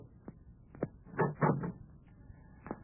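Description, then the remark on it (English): A door being opened: a few short clunks and rattles, then a louder cluster of creaking, scraping knocks, and a final soft thud. Fairly quiet, with no one speaking. “Try the door.”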